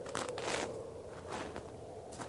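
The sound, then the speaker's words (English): Faint, crunchy hoofbeats of an approaching horse on rough ground come in a few uneven bursts, with no voices. “What's that sound? It's a horse.”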